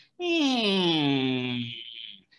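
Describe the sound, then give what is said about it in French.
A voice mimics the creaking of a roommate's bedroom door as it is opened, a single drawn-out, nasal groan that slides slowly downward in pitch for about two seconds, loud, before trailing off. “comme la porte de la chambre à mon coloc, elle craque quand tu l'ouvres.”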